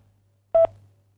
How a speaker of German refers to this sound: Sie müssen nur nach dem Signalton ganz einfach auf Ihrem Tastentelefon die Taste 3 drücken. Ja, nur die 3. Die 3. Bitte drücken Sie jetzt gleich nach dem Signalton die 3.